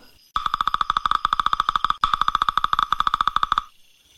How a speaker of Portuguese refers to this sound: E o tigre saiu atrás do pica-pau e o encontrou lá no limiar dos arrozais, batendo, batendo e batendo.